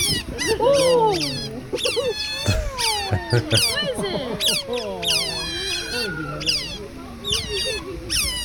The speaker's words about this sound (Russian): На что похож крик выдры? Ну, кстати, вы сейчас его услышите